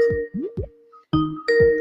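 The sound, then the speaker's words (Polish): A phone rings with an incoming call, a short electronic melody of repeated chiming, bell-like tones, fairly loud, with no voices over it. “O, ktoś dzwoni, dobra. To odbieramy, a ja potem o tej koncepcji yy, powiem.”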